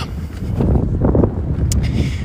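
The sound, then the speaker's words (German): Strong wind buffets the microphone outdoors in northern Germany in a steady, loud low rumble, surging and gusting continuously throughout, with no voices present. “Es ist ziemlich windig. Deshalb, also wirklich, Wind wird hier ein großes Problem sein.”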